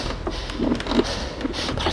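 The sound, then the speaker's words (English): An old wooden rocking chair on a porch, with a doll sitting in it, creaks softly several times in an uneven rhythm as it rocks in the wind, the faint groans set against a steady hiss of background noise with no one speaking. “And why is it rocking? The wind.”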